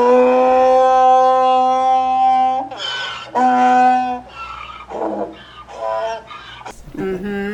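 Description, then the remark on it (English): A donkey brays loudly, starting with a long, sustained honking tone and breaking into rough, alternating hee-haw gasps that taper off over several seconds. “Yes, they're quite loud.”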